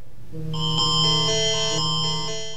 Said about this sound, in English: It's the sound of an emergency notification, in this case, an Amber Alert loud enough to wake you up if you're sleeping with the phone on. It's designed to get your attention, possibly help save a life.